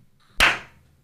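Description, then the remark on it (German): A single sharp hand clap at the microphone, loud and sudden, trailing off in a brief ringing decay, with no talking around it. “Diese Gewohnheit, wenn man klatscht am Mikro, eh.”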